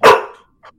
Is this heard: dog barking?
yes